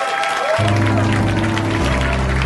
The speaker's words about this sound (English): We keep clapping!